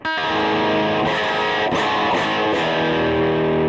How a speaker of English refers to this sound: this guitar isn't totally in tune either.